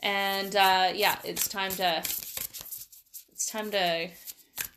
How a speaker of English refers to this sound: So I'm just shuffling the deck of cards here if you're wondering what that noise is.